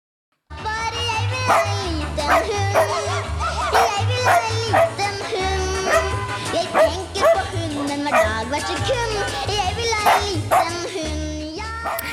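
A small dog yips and barks in quick bursts, mixed with high whining whimpers, fairly loud, continuing steadily for several seconds.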